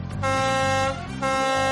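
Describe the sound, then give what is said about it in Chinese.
A super-big horn is blown over the sea, blaring loudly: a brief toot followed by two long, steady blasts with a brassy, buzzing tone and a short gap between them. No voices. “可乐王子拿出了一个超级大喇叭，吹了起来。”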